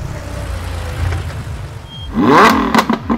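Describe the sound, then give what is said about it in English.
A yellow Lamborghini sports car engine idles with a low rumble, then revs hard in a loud, rising roar over the last second, with no one talking. “A yellow Lambo, baby. A Lambo car will take us far.”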